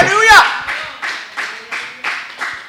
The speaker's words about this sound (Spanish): Ah, si tú le vas a aplaudir a Dios, tiene que hacer mejor que eso.